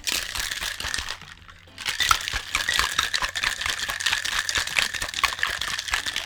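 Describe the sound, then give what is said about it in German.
A lidded cocktail shaker holding lemon juice and a piece of lemon being shaken hard, ice rattling and sloshing in a fast, steady rhythm, with a brief pause near the start before the shaking resumes. “Deckel drauf und geschüttelt.”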